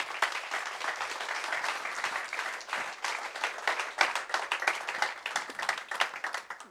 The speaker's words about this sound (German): Geben wir Jesus einen Applaus, bitte. Er hat es verdient.